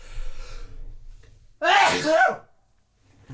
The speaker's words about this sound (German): Gesundheit.